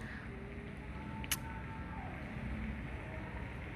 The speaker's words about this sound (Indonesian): ih berisik banget ya motor ih kesel banget